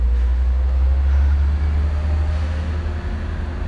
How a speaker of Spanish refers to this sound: Uf. Bueno, perdonad, ya estoy en calle súper tráfico.